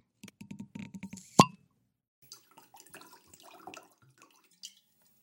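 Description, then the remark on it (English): A winged corkscrew creaks and squeaks in short rhythmic bursts as it pulls the cork from a bottle of Stag's Leap Wine Cellars Artemis Napa Valley Cabernet 2015, then the cork comes free with one sharp pop, followed by faint scattered clinks and rustling. “I've already taken the foil off uh, this bottle and I'm using a winged corkscrew to pull out the cork.”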